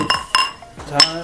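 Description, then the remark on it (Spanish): Several bright clinks of beer glasses ring out in quick succession, fairly loud, as people toast during a beer tasting, with a faint voice or two underneath. “Pues salud. Cheers. Salud.”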